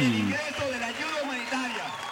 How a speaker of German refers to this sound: Aber der kriegt ja auch richtig schönen Applaus hier, ne?